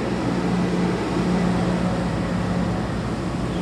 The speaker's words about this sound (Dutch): De blaadjes worden alweer opgeruimd. Veegwagen.